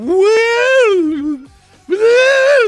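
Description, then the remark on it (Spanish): A voice hums two long, wavering hooting tones, imitating the moaning pipes of a sea organ in Croatia, tubes of different sizes set in holes along the shore that sound when waves arrive. Each swells and sags in pitch, and a short pause separates them. “unos hoyos en, las orillas donde pegaban las olas y les puso tubos que eh, tenían así como diferentes tamaños y cada vez que llegan las olas hacen así como que...”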